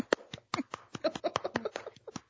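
A short burst of hand clapping from a small group, a couple of seconds of quick, uneven claps at moderate volume, with no talking over it.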